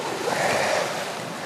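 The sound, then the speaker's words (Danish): A steady roar of ocean surf washing onto the shore, swelling briefly then holding as a broad wash of noise with no voices. “Når man har ørebøffer på, mens man går, så øh, får man havet helt ind i øregangen.”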